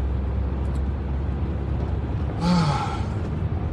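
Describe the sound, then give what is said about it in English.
A car passes by outdoors, its low steady rumble rising into a brief louder whoosh midway before settling back to a hum. No one speaks. “Stop right there, car.”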